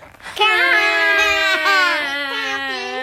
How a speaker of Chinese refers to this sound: 听到妈妈的话之后，志远的嘴角微微的颤抖，再也忍不住的放声大哭。